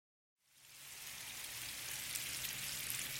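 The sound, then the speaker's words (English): Shrimp frying in hot oil at Parkway Bakery and Tavern, a po' boy shop in New Orleans: a steady, dense sizzle with fine crackling pops that starts after a brief moment of silence and holds even throughout, with no voices. “That's the sound of frying shrimp.”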